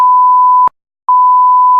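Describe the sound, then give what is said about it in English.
Two loud censor bleeps, each a steady high-pitched tone lasting well over half a second, separated by a brief pause of silence. No voices are heard. “One of our classic bleeps there”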